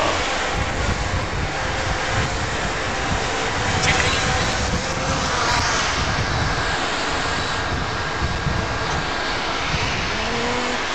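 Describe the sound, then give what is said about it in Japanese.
The propellers of a compact, foldable drone whir loudly and steadily throughout as the craft descends, a dense, unbroken buzzing roar with no pauses, dominating the whole recording. “そうですねこれは形いろんなドローンにもよるんですけどこのドローンは比較的コンパクトにしかも持ち運ぶ時は折りたためるような形になってます”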